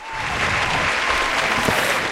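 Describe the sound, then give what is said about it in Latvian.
A crowd claps steadily, a dense, even wash of many hands with no break for the whole stretch, fairly loud and without any voices on top. “Aplausī!”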